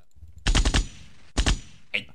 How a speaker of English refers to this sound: I can't hear it. it was just gunshots.